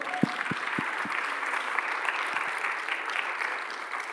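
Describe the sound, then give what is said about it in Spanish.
An audience applauds steadily for the speaker's father as he is called up to the front, a dense wash of many hands clapping at an even level, with a few louder individual claps standing out at the start. “Le a dar un aplauso.”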